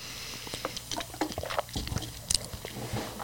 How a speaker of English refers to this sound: Excuse me. I'm going to grab myself a little sip of water.